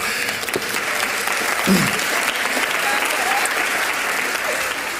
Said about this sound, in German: Geben einen Applaus